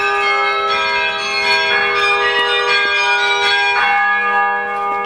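Carillon bells, played by the automatic mechanism rather than by a carillonneur, ring out for the hour: a dense wash of overlapping bright tones with sustained ringing harmonics and new strikes entering every second or so, loud and steady with no talking.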